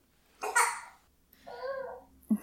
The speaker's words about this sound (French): ah, un bébé.